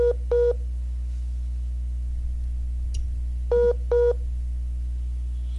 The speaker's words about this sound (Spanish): Nos puso en llamada en espera.